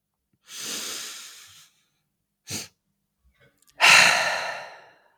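Three loud, close breaths with no talking: a long deep exhale, a quick short intake, then another long forceful breath out, like someone breathing heavily and hard.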